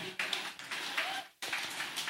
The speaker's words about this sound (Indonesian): Kalau gitu terima kasih banyak. Tepuk tangan untuk